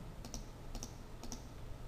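Crisp computer clicks from a keyboard and mouse, three quick double-clicks spaced evenly about half a second apart, fairly quiet over a low background hum, made while selecting items with the Control key held down on the keyboard.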